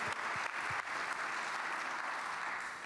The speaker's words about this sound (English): And give them a loving round of applause. We appreciate you so much.